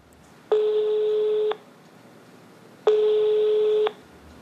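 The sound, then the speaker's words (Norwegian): Two long, steady electronic ringback tones from a telephone line during a call to the board chair of the Oslo port authority, each about a second long with a pause between, sounding over a faint hiss with no one talking. “svarer på telefonen, men han vil ikke intervjues.”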